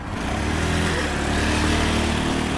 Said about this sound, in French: Nous sommes sur Crouchen Broadway. Sur cette artère du nord de la capitale, les camions, les bus, les voitures circulent de manière ininterrompue. Ah C'est l'avenue euh, principale, il s'agit d'un point chaud de la pollution.